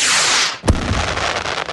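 A loud Fourth of July firework: a rushing hiss fades out, then one sharp bang hits, followed by a lingering crackle and rumble. No one speaks.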